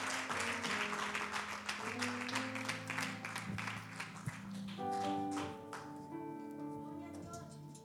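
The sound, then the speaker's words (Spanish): A church audience claps and applauds loudly to welcome a prophet, pastor and evangelist, over sustained keyboard or organ chords, the dense clapping thinning out toward the end while the held musical notes continue. “Con un fuerte aplauso recibamos al profeta, al pastor, evangelista”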